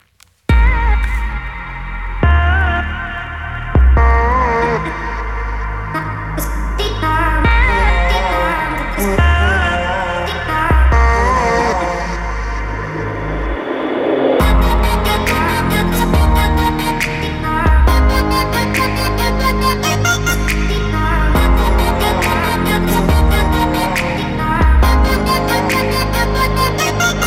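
A pop song with a British female singer plays loudly and steadily, a sung melody over a pulsing beat and layered synths that grow brighter and fuller about halfway through.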